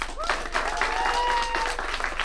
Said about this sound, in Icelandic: og frábært að fá ykkur og takka ykkur hlustendur í útarsal fyrir komuna og gefum okkur öllum hérna gott klapp